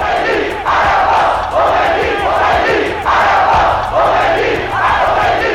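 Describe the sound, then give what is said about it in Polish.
A huge crowd of Iranians chants in loud, rhythmic unison in a frenzy at Ayatollah Khomeini's return to Iran, roughly one shouted phrase every second, with a dense roar of many voices filling the background throughout. “Irańczyków ogarnął prawdziwy szał.”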